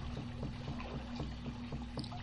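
River water laps steadily against a small boat, a continuous wash broken by soft, irregular splashes and trickles, with no voices present.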